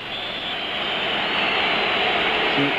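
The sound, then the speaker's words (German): A dense, steady roar from a large football stadium crowd at an emotional East German (GDR) match, loud and unbroken, swelling slightly toward the end, with no clear individual voices standing out. “Ja, hört mal diese Kulisse.”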